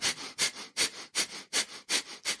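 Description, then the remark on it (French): Rapid Kapalabhati (breath of fire) breathing: a quick, steady train of about seven sharp, forceful nasal exhalations driven by the diaphragm with passive inhalations, evenly spaced, with no talking. “et sous la sous l'inspi, euh, c'est passif, et on respire de façon très rapide avec les diaphragmes.”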